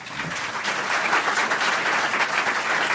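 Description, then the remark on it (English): Steady applause from an audience for the two authors of a book fills the whole stretch, a dense wash of many hands clapping at an even, sustained level with no voices standing out. “Uh, let's have a warm round of applause for them and have lunch.”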